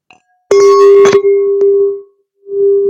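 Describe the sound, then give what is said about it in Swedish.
Glasses clink together a few times in quick succession in a toast, each strike leaving a bright, sustained ringing tone that fades and then rings again, loud with no talking. “Vi kör, och, vi, vi, vi en liten skål här.”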